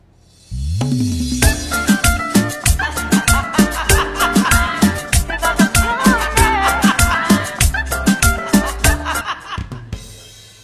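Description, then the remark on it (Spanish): An instrumental song intro with a deep bass line, sharp rhythmic beats at a steady pulse, and bright layered synth chords, loud and full throughout with no singing or talking. “Espérate, pero suena así el tema o es una música de fondo que le han puesto.”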